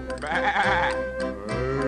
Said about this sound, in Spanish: bebe, bebe, dice el borreguito